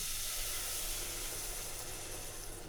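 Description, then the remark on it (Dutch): A whole bottle of brown Leffe beer is poured into a hot cooking pot, bubbling with a steady, loud hiss and fizzing sizzle that holds evenly for the whole stretch, over a low rumbling hum, with no voices. “En ook al wordt hier nu een heel flesje bruin leffen ingegoten. Dat gaat heerlijk borrelen en heerlijk ruiken.”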